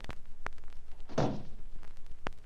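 A door is pushed shut with a soft, muffled thud, bracketed by a few sharp latch and handle clicks before and after.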